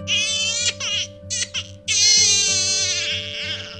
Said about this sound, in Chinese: 就在这时，船舱里传出一个婴儿的哭声。